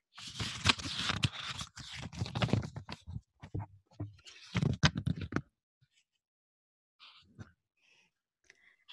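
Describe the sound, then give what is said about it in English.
Pages of a book being turned, a dense run of crisp papery rustles and flips for several seconds, then a few softer, scattered page sounds before it fades. “That was turning pages, yes.”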